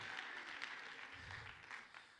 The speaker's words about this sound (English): Come on, let's clap our hands and thank Him that there is no changing in Him, there's no wavering in Him.